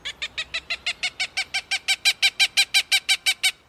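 A Cooper's hawk in a city gives a rapid, steady series of about twenty harsh cak notes, growing louder toward the end, clear with no talking.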